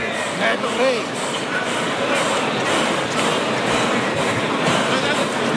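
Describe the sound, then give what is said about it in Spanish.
A bull at a bullfight breathes heavily and fast in front of a barrier (burladero), each breath a rough, rhythmic rush of air about twice a second, over a steady noisy background. “Está en ese, esa es la respiración del toro.”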